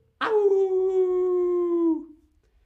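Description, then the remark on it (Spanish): A single sustained dog howl, fairly loud, holding a steady tone for nearly two seconds before sliding slightly downward and fading out. No talking. “O un aullido.”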